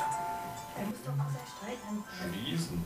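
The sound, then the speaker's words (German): A mobile phone rings with an electronic melody, its tones steady and moderately loud, while people talk over it. “Furchtbar, gell, über diese scheiß Handys.”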